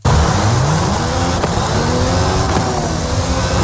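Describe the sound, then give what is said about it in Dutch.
The Formula 1-derived 1.6-litre V6 engine of a Mercedes-AMG One hypercar roars steadily, its tone rising and shifting with a few sharp clicks, loud and continuous with no one talking. “Nou ja, een Formule 1 motor benen, Want dit is de Mercedes AMG One.”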